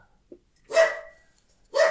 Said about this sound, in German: Ich bin ja dafür, dass wir irgendwann mal so einen, so einen, so einen Track aus dem Bellen deines Hundes machen.